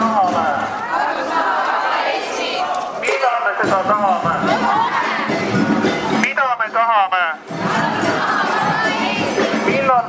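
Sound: protest march crowd chanting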